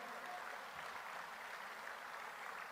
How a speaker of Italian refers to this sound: Quindi un applauso per loro, per loro, vi porterò sempre, sempre nel cuore.